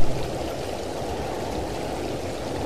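A stream flows steadily over rocks, a continuous rushing, babbling wash of water that stays fairly loud throughout, with no voices.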